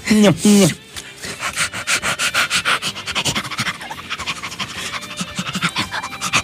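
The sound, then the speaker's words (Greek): A person mimics a dog panting on a bus: two short voiced huffs, then a long run of quick, breathy in-and-out pants in a steady rhythm, fairly loud, lasting several seconds. “Βάλτε του λίγο νερό, ρε παιδιά, στο λεωφορείο.”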